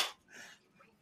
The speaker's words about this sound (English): high five. Listen to it. Just listen.